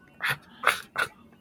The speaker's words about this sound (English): so that that's the dog.